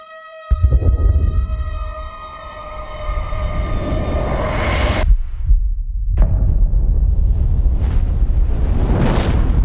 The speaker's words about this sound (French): Le bout de feu a fait péter une charge. C'est pas prévu ça.